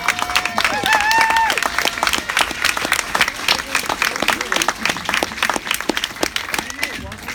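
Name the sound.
audience applauding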